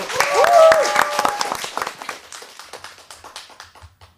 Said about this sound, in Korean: 박수로 청해 듣죠.